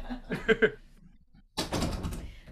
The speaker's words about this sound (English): sorry, my dog just jumped out and I'm just going to close the door. I was watching him go.